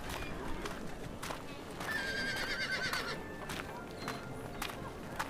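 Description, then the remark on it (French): A horse in a horse corral at Thunder Mesa lets out one drawn-out whinny while hooves clip-clop at an uneven pace, all over a steady, busy outdoor background murmur. “À droite, vous pouvez trouver le célèbre chaparral Seater avec ses grands divertissements et à gauche l'enclos à chevaux.”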